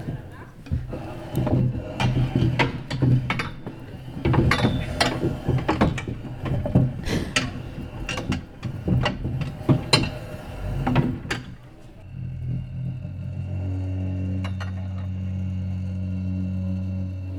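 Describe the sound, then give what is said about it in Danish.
Chairs crowded together being shifted and shuffled around so someone can get out: a busy run of irregular knocks, clatters and scrapes that stops abruptly, leaving a steady low hum. “Når vi sidder herude, så sidder i en stol sådan tit kludret ind i hinanden, så når man skal ud, så sådan, ah, ah, så skal man lige rykke ind, og personen ved siden af til at rykke rundt, og så kan man rykke ud igen.”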